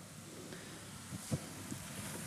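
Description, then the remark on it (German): A pot of pasta water boiling hard, a steady bubbling hiss with a brief louder pop or clunk partway through, and no voices. “Oh, mein Nudelwasser kocht.”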